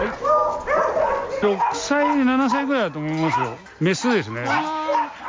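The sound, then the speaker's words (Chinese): Dogs retired from a breeding kennel bark and yelp in overlapping bursts, mixed with high, sliding whines, a loud, continuous clamor lasting several seconds. “这些被犬舍淘汰的狗狗，下一站就是收容所。”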